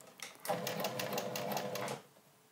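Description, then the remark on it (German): A sewing machine runs in a steady, fast burst of stitching for about a second and a half, fairly loud, with rapid rhythmic clatter and no talking over it. It is stitching gathered fabric while the gathers are pushed in with scissors. “So wie so ein bisschen, sieht auch so ein bisschen Kamikaze-Nähen aus, aber ja, also so könnt ihr das natürlich auch schön verteilen, ja.”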